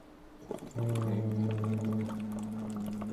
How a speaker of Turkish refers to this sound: Şimdi ne yaptım biliyor musunuz? Önce birkaç fokurtu fokurdattım. Evet. Ondan sonra ses ekledim ama fokurtuyu kesmeden.